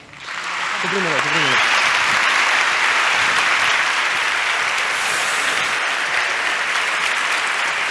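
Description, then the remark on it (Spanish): A large audience bursts into loud, sustained applause for writer Juan Gómez Jurado and María Gómez that holds steady for several seconds, with a brief voice calling out at the very start. “Así que nada, yo ya me callo, pero os pido un fortísimo aplauso para María Gómez y Juan Gómez Jurado.”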